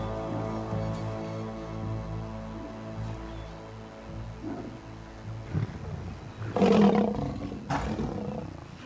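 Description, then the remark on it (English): Deep, rumbling lion roars from a river pride feeding on a dead hippo washed up on a riverbank, sustained and growling, with sharper bursts of snarling near the end; no one speaks. “The river pride feeds on a dead hippo washed up on the river's bank.”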